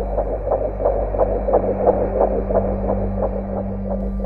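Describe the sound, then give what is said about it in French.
A rapid, steady fetal heartbeat, recorded at a doctor's ultrasound exam, quick whooshing thumps repeating about three times a second over a constant electrical hum, with no voices. “T'es la seule personne qui sent que le cœur, tu sais, que le docteur te fait entendre à l'échographie, ben c'est à l'intérieur de toi qui bat.”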